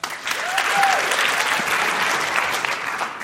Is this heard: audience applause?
yes